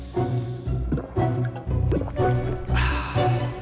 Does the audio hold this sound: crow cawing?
no